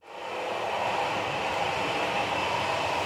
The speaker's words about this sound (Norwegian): En av strekningene som fra neste sommer blir operert av svenske SJ, det er Dovrebanen, altså toget mellom Trondheim og Oslo. Vi har tatt nattog.